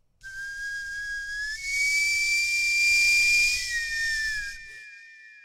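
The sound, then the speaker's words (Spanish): A new radio station jingle, made about three months earlier, of one long, shrill steam-whistle tone that slides slightly upward and holds steady over a loud rushing hiss for about four seconds, then cuts off. No one speaks. “Nueva cortinilla. Exacto, ah, señor. Nos recibieron hoy con esta.”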